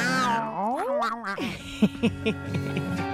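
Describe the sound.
A few human voices imitate a cat's meow together in one drawn-out, sliding call after a count of one, two, three, ending a radio show, followed by brief laughter and chatter.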